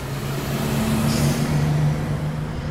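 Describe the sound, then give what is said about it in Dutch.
The first bus of the morning, at five o'clock, rumbles by on the street, heard from a bed on the street side; its low engine drone is steady and fairly loud for a few seconds over a wash of road noise, with no voices. “Het is vijf uur hij ligt in zijn bed aan de straatkant en hij hoort de eerste bus passeren.”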